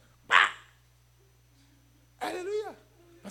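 A dog barks: one sharp, abrupt bark, then after a pause a longer, higher yelping bark with a wavering pitch, and a brief clipped sound at the end.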